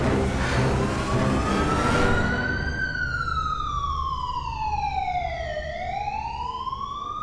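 ambulance siren

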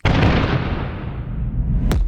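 explosion sound effect

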